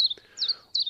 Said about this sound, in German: Das ist der Zilpzalp. Das ist eine Laubsängerart.